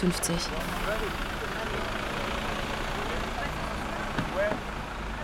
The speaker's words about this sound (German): Bus 96, 10.52 Uhr.